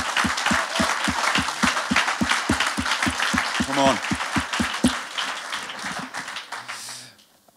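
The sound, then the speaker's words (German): A crowd applauds loudly with dense clapping and a steady beat of rhythmic claps, while a voice calls out over it; the applause tapers off and fades near the end. “Und lass uns nochmal ganz kurz den Dream Team und auch den Ehemanns nochmal richtig großen Applaus geben.”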